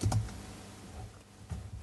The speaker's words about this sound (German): Ich sehe dich tippen.